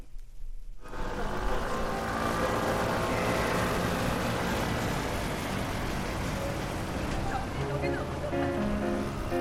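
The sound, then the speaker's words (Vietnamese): After a brief silence, a traffic barrier is lifted at Yongdo Bridge. A dense, steady roar follows as many cars and motorbikes pull away together, racing off with engines rumbling and revving, and faint voices in the background. “Các phương tiện xe hơi và xe máy nhanh chóng xuất phát như thể đang trong cuộc đua xe vậy.”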